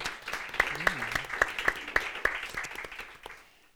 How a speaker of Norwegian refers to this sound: er at vi snakker her om en internasjonal sosiologisk superstjerne fra Birkenes i Indre Agder. Mm. Så en applaus for det.